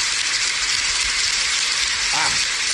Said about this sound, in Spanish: Una buena parte del teatro Adolfo Mejía Silvia se puso en ese momento, le aplaudió. Una buena parte, la verdad si que yo veo todo el teatro todo el mundo. No todo, pero casi todo el mundo. ¿Esto sigue, siendo, el aplauso?